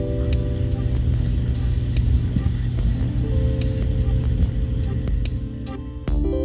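A frog without vocal cords calls using two bony rods in its larynx: a humming, singing, steady, buzzing low drone with layered tones, topped by repeated high, whistly notes in short bursts. It is fairly loud and continuous, with no talking.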